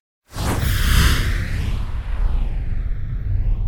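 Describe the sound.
A voice makes little imitated splash noises, a loud, breathy whoosh that starts abruptly and churns on for a few seconds with no talking over it.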